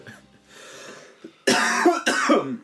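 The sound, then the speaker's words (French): Two loud, harsh coughs, one right after the other, preceded by a softer breathy throat sound. “Ouais, ça tousse un peu.”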